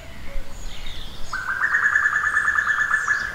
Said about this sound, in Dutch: En het wijfje van de koekoek. Dat geproest, heb je dat gehoord? Dat is het wijfje. Dus dat mannetje is eh, op dat wijfje aan het aanvliegen. Wie weet zien we die twee nog. Ongelooflijk om dat wijfje te kunnen opnemen, want haar hoor je niet zo vaak.